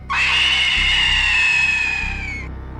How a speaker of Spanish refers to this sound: No me gustó cuando ella comenzó a gritar. Fue el grito más fuerte y escalofriante que jamás pude imaginar.